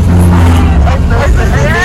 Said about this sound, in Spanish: Ahorita si pasan les vamos a enseñar los camiones públicos están súper decorados como tatuados están padrísimos a ver ahorita se los pasamos. Ay, míralo, míralo, ese, ese, ese.